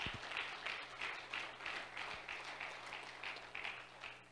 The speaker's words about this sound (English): Clap your hands to the Lord, He's worthy.